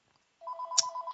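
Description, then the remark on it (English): A telephone next to a desk rings with a rapid warbling electronic trill, one short burst with a brief sharp click partway through, fairly quiet and with no voices. “I'm sorry about the phone ringing next to my desk here.”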